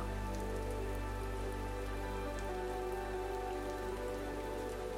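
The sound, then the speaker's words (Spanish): Steady rain pattering on a surface, a continuous dense wash of drops with faint individual taps, even in loudness throughout, with no voices. “Hoy realizamos una meditación con los sonidos de la lluvia, buscando calmarnos y renovarnos a través de sus gotas.”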